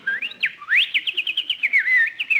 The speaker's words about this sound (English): oh, isn't that cute? That sparrow must be building a nest. He's gathering things for us.